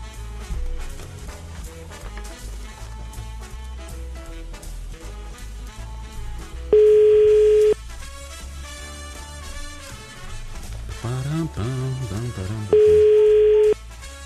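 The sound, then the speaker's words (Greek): Two loud, steady telephone busy-signal beeps from a phone call to a busy number, each lasting about a second and spaced several seconds apart, cut in over continuous background music. “Ο αριθμό που ναι. καλέσατε είναι κατηλημένο.”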